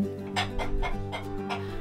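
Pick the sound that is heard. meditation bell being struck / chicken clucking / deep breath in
chicken clucking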